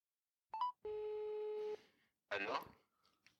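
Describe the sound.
A short electronic phone tone plays as a call is placed: a quick beep, then a steady two-pitch ring tone about one second long. A burst of voice follows, and faint fragments trail at the end.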